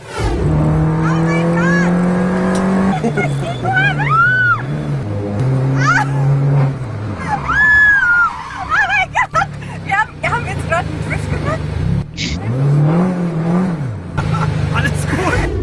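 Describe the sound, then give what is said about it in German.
A race car engine revs loudly, its pitch surging up and down as the car slides through a curve it fails to make, nearly crashing into a wall, while people shout excitedly over the roar. “Also der, der, der, der, Fahrer hat uns danach erklärt, das war jetzt kein Drift, das war fast ein Unfall in der Mauer.”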